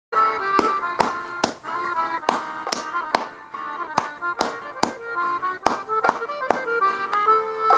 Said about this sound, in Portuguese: Não façam nada, tá bom? Só ouçam a música e vejam como as palmas que eu farei se encaixam no ritmo, entenderam?